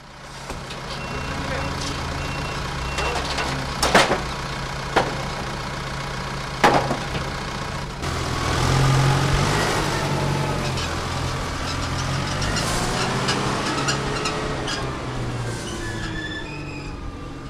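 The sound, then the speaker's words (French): A compartmented tanker truck that carries grape juice to Klosterman runs its engine steadily with a deep, continuous rumble, broken by a few sharp metallic clanks and faint high whines, with indistinct voices in the background. “et puis la citerne emmène le jus à Klosterman et c'est le, le, chef de cave qui prend le relais de toutes les opérations.”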